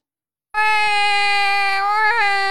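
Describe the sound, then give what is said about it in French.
A person imitates a crying baby with their mouth during a sound-guessing game: one loud, sustained high-pitched wail lasting about two seconds, with a brief wobble near the end. “Un bébé Waouh, tu, tu fais très très bien le bébé,”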